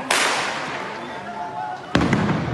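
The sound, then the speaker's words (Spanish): Two sharp, loud gunshot cracks fired at protesters, one right at the start and another about two seconds later, each leaving a harsh, hissing wash of noise that lingers between them. “Le están disparando a todos los manifestantes.”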